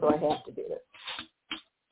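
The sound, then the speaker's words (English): A person speaks briefly, then a few short crinkly plastic knocks and rustles follow as a water bottle is handled. “That's the sound of oops, my water.”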